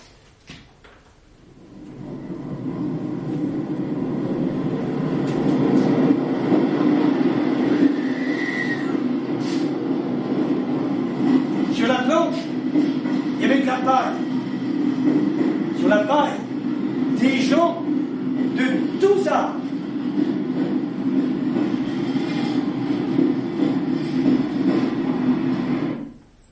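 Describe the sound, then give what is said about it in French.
A train rolls steadily along the rails with a constant low, heavy rumble, loud, broken midway by a run of sharp metallic clacks over the track joints. “dans la mémoire les trains de déportés qui ne circuleront dans l'autre sens que plus tard”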